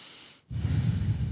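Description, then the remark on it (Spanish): An airy breath drawn in, a brief pause, then a fuller, rougher exhale with a low rumble. No one speaks. “Entonces la respiración.”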